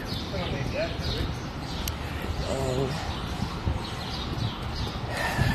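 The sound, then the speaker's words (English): Scattered clanks and thuds of tools being pulled off a truck in preparation for construction, heard through steady outdoor background noise, with a brief voice speaking partway through. “Getting ready for construction. The noise is pulling the tools off the truck.”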